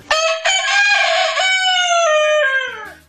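A rooster crows once, loud, a long harsh cock-a-doodle-doo that holds strong for a couple of seconds before its pitch sags and trails off.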